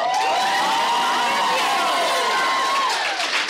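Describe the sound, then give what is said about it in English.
An audience, asked to applaud if they have been to the Stanley Hotel, bursts into steady applause mixed with cheers and a few high whoops, a dense, loud wash of clapping and voices that holds for several seconds without a break. “Uh, round of applause if you've been to the Stanley Hotel.”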